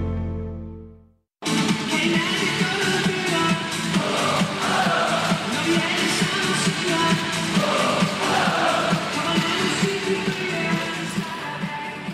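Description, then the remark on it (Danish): A short low booming tone fades out, then a large arena crowd at a handball match erupts into loud, sustained cheering and roaring that fills the space continuously with no pauses. “Sådan her kommer det helt sikkert ikke til at lyde i boksen i Herning, når der er EM-slutrunde i starten af december.”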